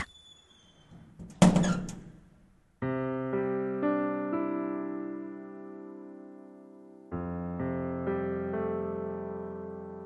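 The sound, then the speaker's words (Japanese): A door closes with a single soft thud and brief rattle, then sustained, gently swelling musical chords take over and ring on to the end. “ドアが静かにしまった。”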